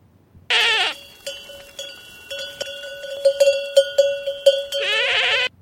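Two goats in the countryside bleat, one short cry at the start and a longer one at the end, with metallic bells clanking and ringing repeatedly in between. No one speaks.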